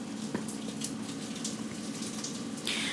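Dropped drinking water splashes and spills in a steady, hissing rush, with a brief knock near the start and a brighter gush of pouring toward the end.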